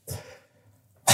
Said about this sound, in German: ähm, hab ich das, hä, hab ich das, musste ich aber komisch niesen. ähm, Gesundheit.